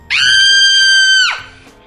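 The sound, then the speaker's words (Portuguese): A phone ringtone of a girl screaming: a single loud, shrill scream, held at a steady pitch for just over a second before cutting off abruptly, with no talking around it. “Tinha um também que era uma menina que gritava.”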